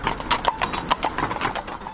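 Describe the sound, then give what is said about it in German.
Horse hooves clip-clop at a brisk, steady trot as a horse-drawn carriage rolls along a cultural trail, each sharp knock clear with no voices over it. “Ganz leicht und vor allem bequem lässt sich der Kulturweg auch mit der Pferdekutsche erleben.”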